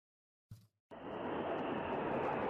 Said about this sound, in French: Dans le ciel de Moscou, les moteurs des avions de chasse frombissent au-dessus de la place rouge. Un des escadrons d'aéronefs forme un Z, signe de l'armée russe en Ukraine.